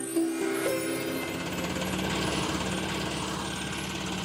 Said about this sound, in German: Jetzt werden die Baumstämme mit dem Gabelstapler zu dem Floß gebracht.